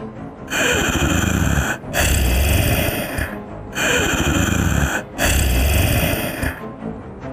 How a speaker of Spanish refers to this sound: No podía moverme y podía escucharle hacer sonidos como de respiración, pesados.